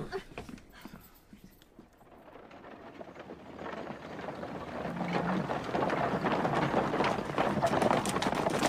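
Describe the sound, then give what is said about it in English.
A horse-drawn coach gets under way, hooves clopping over a rumbling, rattling wash of wheels that swells steadily louder over several seconds, with no voices. “Put them in the coach and take them to a place of custody, all three of them!”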